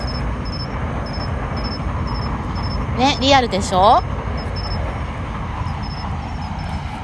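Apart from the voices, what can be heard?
train arriving at station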